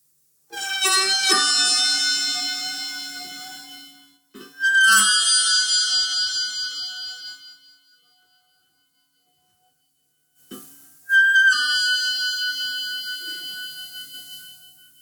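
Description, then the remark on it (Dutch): A small cymbal is bowed or struck three times, each time ringing out in long, shimmering metallic tones that swell and slowly fade, imitating whale song, with silent gaps between. “Nou, het grootste beest op de aarde. Eh, door, door het kleinste instrumentje, het kleinste bekkentje.”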